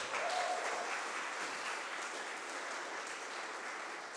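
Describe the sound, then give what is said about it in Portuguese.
An audience applauding Jesus, a dense wash of many hands clapping at an even, sustained level for several seconds, with no speech over it. “Vamos aplaudir Jesus bem alto, gente?”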